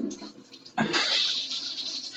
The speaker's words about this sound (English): Sorry for the flushing toilet, but I just pee.